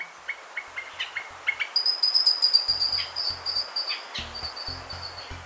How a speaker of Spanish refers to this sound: El trino del chango de montaña forma parte del Banco de Sonidos de Aves Colombianas recopilado por el Instituto von Humboldt y la Universidad de Cornell.